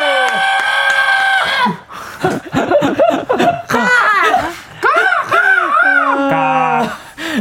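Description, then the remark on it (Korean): A person imitates a crow, letting out a string of loud, arching caw-like calls in quick succession, with laughter and a few sustained vocal tones mixed in around them. “자 그러면 이제 좀 입도 풀 겸 시원하게 까마귀 소리 한번 발사.”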